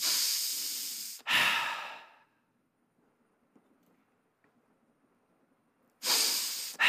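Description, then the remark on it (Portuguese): Slow, deliberate breaths: a long airy exhale and inhale, then several seconds of near silence before another breath begins. “Os estudiosos da Bíblia hebraica, eles dizem que a, o som mais próximo do nome que Deus pronunciou para Moisés é um som de respiração.”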